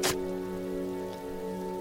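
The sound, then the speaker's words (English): Steady rain falls over a backyard during a burial, a continuous soft wash at even loudness, opening with a brief sharp burst of noise and carrying a low sustained drone underneath. “An hour later, I buried Casey in my backyard while it rained.”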